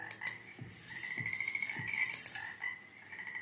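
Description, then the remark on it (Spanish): Frog-like croaking repeats in a steady rhythm, a few low throaty pulses under a continuous high buzzing trill, moderately loud, with no talking. “pero el croac le sale muy bien.”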